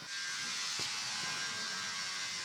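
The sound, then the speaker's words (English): A steady mechanical buzz from a cutting machine, like a sewing machine, runs unbroken with a bright high whine, plus a single brief knock partway through. No one speaks. “Is it like It's like sewing. Uh, how do you say? Yeah, yeah, cutting so the- machine.”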